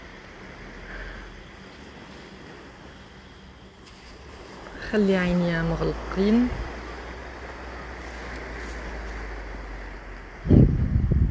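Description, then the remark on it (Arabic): Ocean waves wash steadily in the background with wind noise rushing across the microphone. A voice speaks briefly midway, and a sharp, louder bump is heard near the end. “أنا ممتن للجو هذا اللي نعيش فيه لصوت الموج اللي نسمع فيه للريح تاني صوت الريح”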